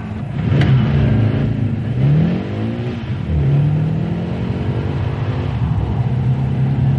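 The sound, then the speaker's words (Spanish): A car engine catches and revs repeatedly, pitch rising and falling in several strong surges before settling into a steady idle, loud, with no voices. “Al fin, logré arrancar el coche.”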